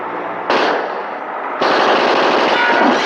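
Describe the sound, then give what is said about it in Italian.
Loud, rapid gunfire in dense automatic bursts, a first volley followed by an even heavier second one that rattles on continuously, harsh with no voices. “sono spari!”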